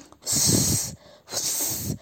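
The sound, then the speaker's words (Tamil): A voice imitates the hiss of a cobra found inside a big box, with two sharp, breathy bursts, each lasting under a second with a brief pause between, fairly loud. “சரி அந்த பாக்ஸையாச்சும் திறந்து பார்க்கலான்னு பார்த்தா அந்த பெரிய பாக்ஸ்குள்ளார ஒரு நாகப்பாம்பு இருந்ததான்”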